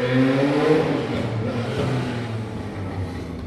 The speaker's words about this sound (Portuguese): Eita, Indaiatuba, é. sexta-noite, os caras aceleram, é, hein? Os caras... É, é uma moto, é uma moto.